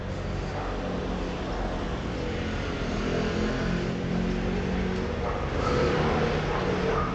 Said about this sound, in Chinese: 像这样没有画面，然后只有车子的嘈杂声，希望不要有风声啦，有风声听起来会蛮噪的。